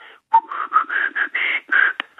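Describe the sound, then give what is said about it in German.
Someone whistles a short, catchy radio station jingle of about eight quick notes in a bouncy rhythm, fairly loud, with no talking. “Mit einem Pfiff, der ihm beigebrachten Pfiffe, war dieses Bayern 3 Signal”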